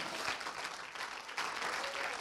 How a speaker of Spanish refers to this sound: Dele un aplauso de alabanza al Señor.